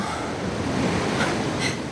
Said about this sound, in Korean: 야, 파도 소리 들리지? 어. 하, 바다만 봐도 살 것 같다, 야.